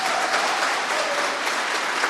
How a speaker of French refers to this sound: Bonjour, professeur Arsène Copéa. Je vous demande de l'applaudir, s'il vous plaît.